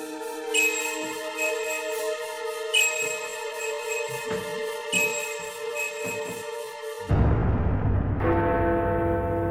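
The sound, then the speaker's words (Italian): Church bells, told of in legend as ringing beneath the deep waters of Lake Alleghe, toll with long, shimmering resonance, struck roughly every two seconds; near the end a deep rumbling, watery wash swells up beneath the fading ring. No one speaks. “se non in quelle chiacchiere da bar mascherate da leggende, le campane che suonano sotto le acque profonde del lago di Alleghe.”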